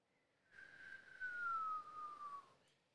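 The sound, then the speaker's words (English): A person whistles one long, steadily falling tone lasting about two seconds, imitating the descending whine of an incoming rocket or mortar heard in Iraq before the alarm went off. The whistle is clear, with no talking. “Now sometimes you hear it go off before the alarm goes off, so you'd hear a,”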